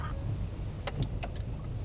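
A police van drives along the B101 road, its steady low engine and road rumble filling the cabin, with a few quick clicks and rattles near the middle and no one talking.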